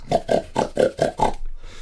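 A pig grunts six times in a quick, steady rhythm, each grunt short and throaty, fairly loud, with a faint rustle trailing after the last one.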